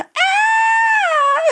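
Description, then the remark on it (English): A single loud, sustained high-pitched scream from a human voice imitating a shriek, holding steady for over a second before cutting off. “and the worst part was I let out the biggest and girliest scream that I've ever done in my life.”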